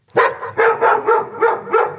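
A dog barks six times in quick, steady succession, each bark loud, with no voices around it.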